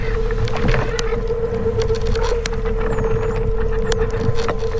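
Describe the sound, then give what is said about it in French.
Underwater recording of dolphin vocalizations in the Bay of Biscay, made for scientific analysis: high whistling sweeps and sharp clicks over a steady low engine-like hum, with a constant murky background rumble and no talking. “Tous les points bleus, là, c'est là où il y a eu des sons de dauphins qui ont été enregistrés.”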